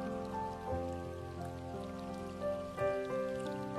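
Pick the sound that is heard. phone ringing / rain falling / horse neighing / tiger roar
rain falling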